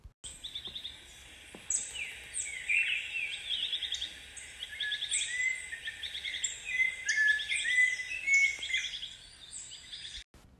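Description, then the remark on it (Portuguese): Several small birds chirp and sing together in a continuous, overlapping chorus of high, bright tweets and trills, steady throughout, with no voices present. “O mundo de Theo era cheio de sons, e ele gostava de ouvir passarinhos.”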